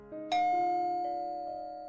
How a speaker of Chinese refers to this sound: 昏昏欲睡的丽丽被门铃惊醒，猫眼看到。似曾相识的面孔，打开了房门。